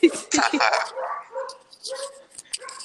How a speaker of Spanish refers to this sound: Bueno, llegó... la jauría. Bueno, no hay tigres, pero hay perros.